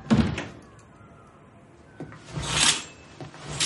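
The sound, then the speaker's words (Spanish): A bellboy closing a hotel room door in Jerusalem: a sharp knock of the latch at the start, a short lull, then a longer rubbing, sliding sweep as it swings shut. No voices. “El botones se va y cierra la puerta.”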